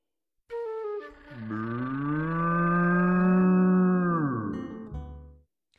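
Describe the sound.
A human voice imitates a cow with one long, drawn-out, loud moo lasting several seconds, sliding down in pitch at the end, as a vet pulls a cow out from deep inside George, a dog, with no other sounds around it.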